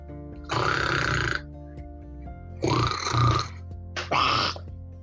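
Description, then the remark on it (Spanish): Wild boars snoring in a large black mud wallow: three rough, rasping snores, each lasting about a second, with short pauses between them and a low rumbling hum underneath. “Cuando los demás todavía roncan en el lodazal grande y negro”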